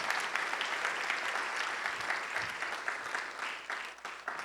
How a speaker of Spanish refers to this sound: Alguien le da un aplauso al Señor esta mañana, sed de Dios.